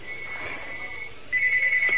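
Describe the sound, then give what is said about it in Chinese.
Two telephones of a live phone-in program ringing together: a steady high electronic tone holds for a second, then a louder, rapidly pulsing ring joins at a similar pitch, with no voices. “现在麻烦了，两个电话一起响，但是台长只能接一个电话。”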